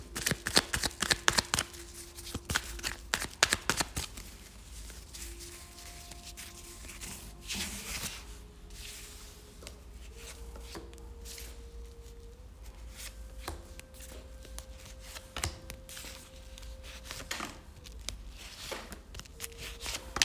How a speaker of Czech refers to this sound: Já už se dívám na vaši fotku, míchám u toho karty a my se spolu podíváme na tento partnerský vztah.